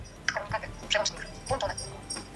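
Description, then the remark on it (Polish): A phone's WhatsApp group message notification tone, the sound the user has set for group messages, plays: a short run of bright, bouncy electronic notes in quick succession, high-pitched and moderately loud, lasting about two seconds. “Uwaga, Wiadomość grupowa to jest jaki mam sygnał dźwiękowy ustawiony do wiadomości grupowej, bo do wiadomości grupowej i do wiadomości indywidualnej można sygnał dźwiękowy sobie przypisać yy, różny.”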